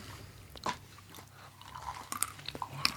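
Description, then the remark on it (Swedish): Crunching as someone chews a large crunchy nut snack during a tasting, with irregular sharp bites and crackles that grow busier toward the end, heard alone with no talking. “liksom eh, satisfying att tugga på på något sätt.”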